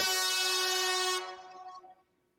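A loud, sustained air horn blast with a bright, buzzing tone holds steady for about a second, then cuts off and rings out briefly. No voices are present.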